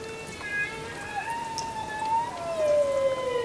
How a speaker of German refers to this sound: Regentropfen auf der Wasseroberfläche sind für die Tiere bis in die Tiefsee hörbar.